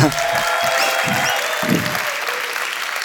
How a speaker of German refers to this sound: Und deswegen, liebe Church Online, liebe Microchurches, liebe Locations, lass uns, wenn ihr eine Kappe habt, den Hut ziehen, wenn er auf die Bühne kommt oder sonst einfach ausflippen per Applaus.